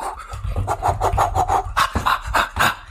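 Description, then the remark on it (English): Rapid scuffing and rubbing as a standing person pulls off slippers and shuffles their feet, a quick irregular series of rasping strokes with no one talking. “gonna take my slippers off.”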